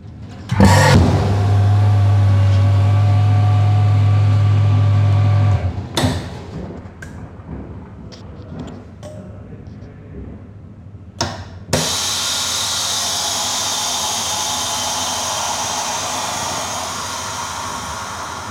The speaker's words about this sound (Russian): Как только убирается воздух, происходит э, запаивание пакета, ну и дальше, в общем, пускается воздух, крышка открывается и получается вакуум. То есть, э, ну, сейчас вы можете дальше услышать, как, в принципе, это, этот вакуумный аппарат работает.